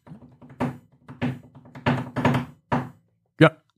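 Knuckles rap on a wooden tabletop, played like an instrument, about half a dozen times in a loose, steady rhythm, each knock fairly loud, with a faint low hum or murmur beneath the first few.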